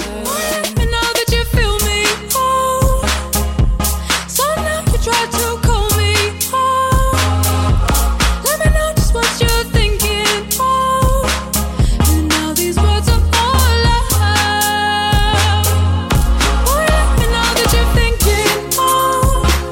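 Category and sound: electronic pop song playing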